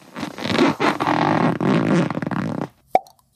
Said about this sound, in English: Most of those are real, but there are some jokers in Azeroth that think it's pretty funny to suction cup fake herbs to walls. If you hear a loud pop like this